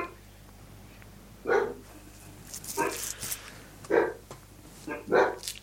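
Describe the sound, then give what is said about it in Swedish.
Several sharp dog barks come in separate bursts in the background, a couple of seconds apart, over a low steady hum, with a brief rustle or voice between them. “Skäller hundarna här i bakgrunden.”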